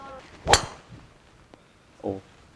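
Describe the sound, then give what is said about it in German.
A golf driver with a stiff-flex shaft strikes the ball on a tee shot with one sharp, loud crack, followed by a faint click and a short voiced murmur a moment later. “Da ist ein Gaufschlag. Und ihr seht, dass der ein bisschen höher geflogen.”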